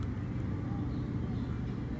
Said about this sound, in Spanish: Y mientras tanto los avioncitos del desfile siguen pasando. Los helicópteros y los avioncitos del desfile siguen pasando.